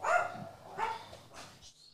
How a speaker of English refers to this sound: Is that the shepherd dog in the background? It is. That's the lunatic dog.